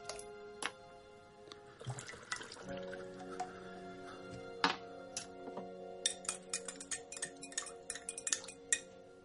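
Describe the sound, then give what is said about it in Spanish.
In a bathroom, a spoon clinks repeatedly against a glass of water, held in a trembling hand, into which a small bottle was poured: sharp bright taps in an irregular rhythm with a sustained ringing tone and faint liquid sloshing between them; no one speaks. “Saca la cucharilla del interior. Sujeta el vaso con mano temblorosa.”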